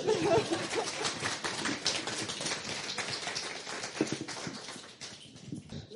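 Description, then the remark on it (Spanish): Loud, deafening applause welcoming newcomers to the Never Cactus school: a dense, crackling wash of many hands clapping at once, steady for several seconds and thinning slightly toward the end, with no voices over it. “Aplauso ensordecedor.”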